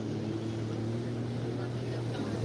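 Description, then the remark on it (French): A steady motor drone with a strong low hum and layered tonal bands from a jet ski engine idling or cruising on the water, holding constant loudness throughout with no talk. “Puis j'ai vu que ça, jouait jet ski là.”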